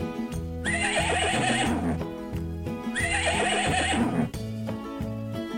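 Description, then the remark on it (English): A horse whinnies twice, each shrill, quavering neigh lasting about a second, over a steady plucked musical backing that continues throughout. “Nay, nay, said the horse.”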